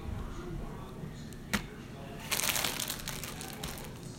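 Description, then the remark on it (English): A paper towel used for tortillas crinkling and rustling, with a sharp crackle early on, then a longer burst of crumpling in the middle that settles into soft handling noises. “Now I bet you I can use the same paper towel for the second wave of tortillas.”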